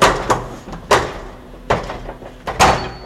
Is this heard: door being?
yes